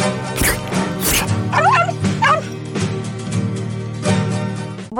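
A dog barks sharply a few times and lets out high, quivering yips in between, fairly loud, with a steady low hum running underneath throughout.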